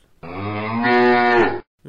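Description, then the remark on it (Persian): A single long, loud cow moo, rising slightly in pitch and held for over a second before cutting off, with no talking. The cow is named Barmayeh. “یک گاب هم داشتن که تو دنیا لنگه نداشته زگاوان ورا برترین پایه بود اسم این گاو برمایه بود”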